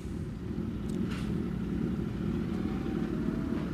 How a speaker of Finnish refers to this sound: Tänne tulee vähän moottoripyöräkansaakin, pientä pärinää, mutta sehän sopii kaupunkielämään mukaan.